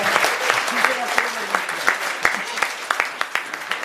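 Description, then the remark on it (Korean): An audience claps steadily for a few seconds to welcome a guest speaker, a dense patter of many hands with sharper individual claps standing out, with a faint voice murmuring underneath. “박수가 약하다 좀 세게 쳐봐.”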